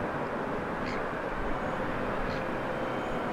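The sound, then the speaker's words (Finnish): A steady, dense rumble of construction work machines running, made louder by the microphones than the human ear hears it, holding an even loudness throughout, with a couple of faint high chirps briefly rising above the drone. “Mikrofonit vahvistaa työkoneiden ääntä.”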